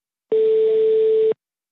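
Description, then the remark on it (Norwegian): A single steady telephone line tone, as a producer connects a guest by phone link into a radio studio, lasting about a second, clear and fairly loud over a faint hiss of line noise, with silence before and after and no voices. “Nå skal vi få en gjest via telefonlink her i studio, så da kan du, produsent, bare koble, koble opp, gjøre det”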